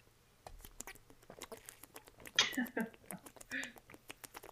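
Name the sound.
drinking water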